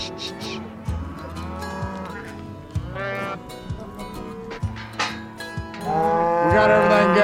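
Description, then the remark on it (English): Several cows and calves moo repeatedly in a pen, overlapping low bellows and higher calls, fairly loud, building into a dense chorus toward the end. “Now we're going to separate the cows from the calves, and then we'll work the calves.”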